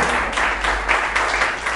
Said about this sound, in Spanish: ¿Puedes darle un aplauso al Señor por esa buena noticia? Aleluya.